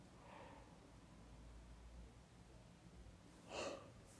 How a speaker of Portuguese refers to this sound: Ai, desculpem, tive só de bocejar.